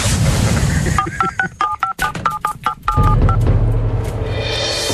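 A rapid series of telephone keypad tones dials a number, about a dozen short beeps in quick rhythm, clear over a busy radio-style background.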